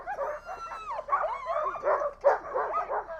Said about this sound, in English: So this is dog mushing its best. Noisy, noisy, noisy. You couldn't load up. The dogs are super excited.